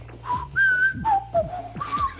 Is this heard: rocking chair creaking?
no